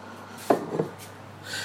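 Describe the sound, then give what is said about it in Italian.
A sachet of Idrolitina powder is emptied into a glass bottle filled with water: two quick taps or clinks, then a soft, hissing rustle as the powder pours in, with no talking. “ebbene sì, infatti adesso riempito una bella bottiglia di acqua, una bella bottiglia di vetro andiamo a prendere una bella bustina di idrolettino e ce la mettiamo dentro.”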